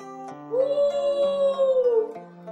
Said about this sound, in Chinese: 也不知道过了多久，天空之上忽然传来一声悠长的、凄厉的嚎叫声。